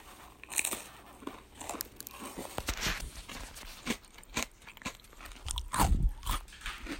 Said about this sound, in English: We're crunching the crackers.